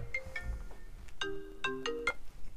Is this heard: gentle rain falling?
no